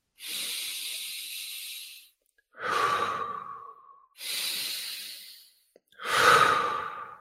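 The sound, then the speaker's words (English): Slow, deep breathing as a relaxing bedtime breathing exercise: two full cycles of a long airy inhale followed by a heavier, sighing exhale, steady and unhurried with brief pauses between, and no talking. “Practice a bedtime ritual such as like breathing,”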